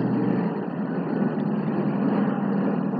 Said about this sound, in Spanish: Ay, espérenme que está pasando un helicóptero.